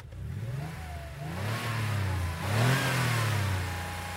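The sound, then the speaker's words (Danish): The engine of a lowered 1970s Simca car revs up twice, the pitch climbing and falling in strong surges over a steady low rumble, fairly loud with no voices. “Jeg ved ikke, hvor mange V'er der er med i, men det er en del.”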